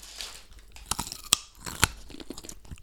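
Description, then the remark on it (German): People each bite into and chew their own raw potato: sharp, crisp crunches with two louder snaps, followed by softer wet chewing sounds. No one speaks. “Ja, aber kann man doch, also hast ich glaub, wir können also ja, wir können alle mal gemeinsam in so eine, also jeder eine eigene beißen.”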